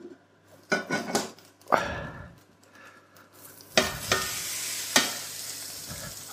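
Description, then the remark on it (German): Kitchen sounds of a tortilla, turned over with a large plate, being slid back into a frying pan: scraping and a few clattering knocks, then a loud burst of sizzling oil with more clinks. No one speaks. “Und dann kommt es wieder in die Pfanne.”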